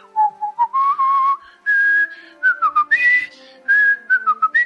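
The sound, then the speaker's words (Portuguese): A person badly whistles a wobbly, off-key melody, the notes sliding and wavering between pitches in uneven phrases with short breaths between them. “É, deu pra saber por pouco, porque tu assovia pau pra caralho, viu, velho?”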